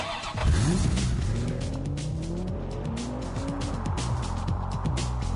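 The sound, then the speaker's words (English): A short radio traffic-report sounder of a car engine revving hard through rising and falling pitches, with tires squealing and skidding, loud, no voices. “All right, hold that uh, hold that uh, traffic sounder for uh, just a second.”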